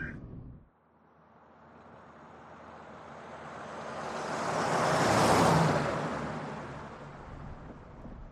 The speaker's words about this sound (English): Once I'm in the car, it's exactly the same. I'm in the back seat with my guide dog. There's nobody up front, and things are driving along.